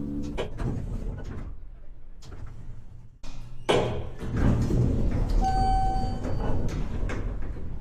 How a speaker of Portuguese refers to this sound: Nono andar. As portas se abriram.